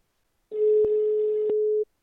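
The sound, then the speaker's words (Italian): A single steady telephone ringback tone, one unbroken mid-pitched beep lasting just over a second, heard alone and fairly clear with no voices over it. “Ora squilla. Oh, squilla.”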